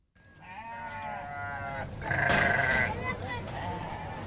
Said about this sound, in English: It smells and sounds like a farming community here. You can hear the goats and the sheep, the chickens, but this is no ordinary community. It's a displaced camp.